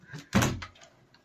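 A window to the left of the person is opened: a soft rustle, then a single sharp clunk of the frame that rings briefly, followed by a faint scrape and quiet settling. No one speaks.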